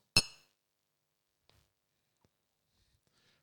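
A single bright, crisp clink of beer glasses touching in a toast to 2022, with a short ringing tail, followed by near silence and a few faint small knocks.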